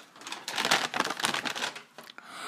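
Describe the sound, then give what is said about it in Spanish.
A close, crisp rustle of paper as a page is turned, with a few quick swishing and crinkling bursts over a couple of seconds and no voices. “Me voy a otra página.”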